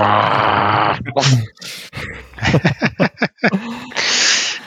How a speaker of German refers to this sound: du machst schon Geräusche und knurrst oder?